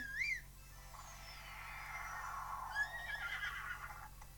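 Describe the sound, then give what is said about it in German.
A short high whistle calling a horse back, then a horse whinnies in a long, shaky neigh that rises and trails off, fairly loud over a low steady hum, with no talking. “So, ich pfeife jetzt hier mal mein Pferd wieder her.”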